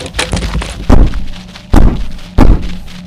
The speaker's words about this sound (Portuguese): Alguém batendo na porta. Batendo ou esmurrando, é. Bom? Esmurrando, batendo com força.